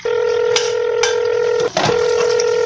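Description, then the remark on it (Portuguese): A phone number is being dialed by someone washing dishes: a steady dial tone hums throughout, broken by a few sharp keypad beeps and one brief gap where the tone cuts out and returns. “Deixa eu ligar para ela para ver se ela tem.”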